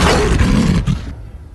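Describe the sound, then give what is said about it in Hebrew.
In a circus act, a lion snaps its jaws shut on a performer's head placed inside its mouth, in a loud burst of gravelly, roar-like growling that lasts about a second before cutting off and fading. No one speaks. “אריה סגר אליי את המלטעות.”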